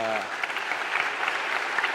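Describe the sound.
A crowd applauds with dense, steady clapping that holds at an even level throughout, after a brief voiced sound at the very start.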